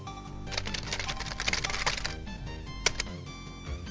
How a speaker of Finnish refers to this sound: moikkailee näppäimistön kautta näin.